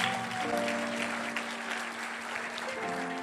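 Steady, dense applause from a crowd fills the whole few seconds, with a sustained tonal hum or held musical note running underneath the clapping.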